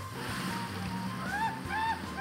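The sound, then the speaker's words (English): A small Ukrainian naval drone, controlled by a pilot, roars steadily out across open water after being lowered in at a makeshift Ukrainian military base; its low engine drone blends with rushing, splashing waves, with a couple of brief rising whines near the end. “It roars out into the open water under the control of this pilot, who asked we don't show his face”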